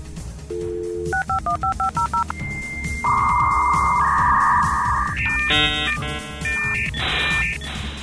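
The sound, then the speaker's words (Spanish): A 28K or 56K dial-up modem connecting to the Internet: a string of rapid dialing beeps, then a steady high tone, followed by harsh, shifting screeches and warbling handshake noise, loud over a low background hum. “Pues bien, también la entrada de Internet en muchas casas, porque esos resúmenes de Robinson solo estaban disponibles a partir de aquellos modems de 28 o 56K.”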